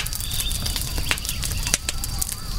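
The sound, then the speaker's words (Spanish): Crackling flames of the great Caney, a large building burning in the village of Jaragua: a steady low roar with scattered sharp pops and snaps, fairly loud, continuing throughout with no voices. “Un silencio intenso, insoportable, solo roto por el crepitar de las llamas y los lamentos de los pocos heridos que las lanzas de los jinetes españoles habían dejado.”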